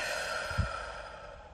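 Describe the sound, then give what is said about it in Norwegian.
A long, steady breath out through the mouth, soft and airy like a quiet sigh, with no talking around it, taken during a guided breathing exercise with the hands resting on the belly. “Et langt pust ut, kanskje ut gjennom munnen.”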